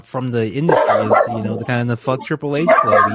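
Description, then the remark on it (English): Dogs bark repeatedly in the background while a man keeps talking over them, the barking mixed in with his speech. “hold, sorry about my dogs.”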